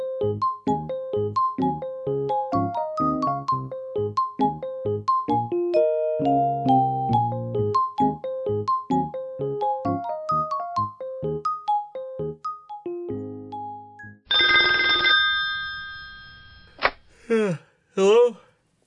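After a stretch of bouncy, rhythmic music, a telephone rings once in a bright, sustained burst lasting a couple of seconds, followed by a few short chirping sounds.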